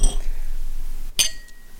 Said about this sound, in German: Auf äh, alle frischen Azubis. Prost. Stößchen.